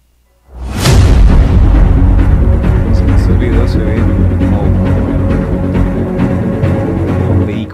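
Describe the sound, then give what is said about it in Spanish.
A rocket strikes and explodes with a sudden, heavy blast, recorded by a camera, then a loud, continuous rumbling roar with crackling bursts carries on for several seconds. “cómo la cámara registra que, que se chocó.”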